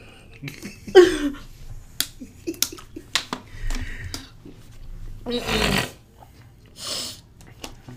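A voice imitates snoring with a couple of raspy, snorting bursts, one early and a longer one later, separated by sharp clicking sounds and quiet gaps.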